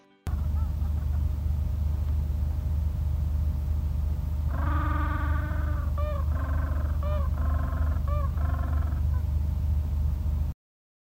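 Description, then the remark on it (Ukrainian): A steady, heavy wind roars and howls throughout with a deep rumble, heard from an attic in Antarctica, while a series of loud honking, bird-like animal calls rises over it midway before fading out. “На горищі спати досить холодно і незвично, дуже сильно чути, як гуде вітер і долинають звуки підвійні.”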